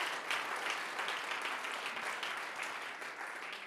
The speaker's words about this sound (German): Komm mal, wollen wir Jesus dafür mal einen Applaus geben?